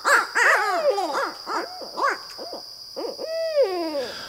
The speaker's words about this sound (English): No matter what accounts for the barred owl's dramatic sweep across the continent, the bird and its extraordinary voice seem here to stay.